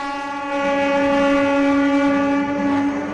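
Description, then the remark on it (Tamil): A passenger train of India's first private train service, between Coimbatore and Shirdi, sounds a long, steady, loud horn blast that holds one rich tone for about three seconds, with no talking and only a faint rumble underneath. “இந்தியாவின் முதல் தனியார் ரயில் சேவை கோவை ஷீரடி இடையே இன்று தொடக்கம்”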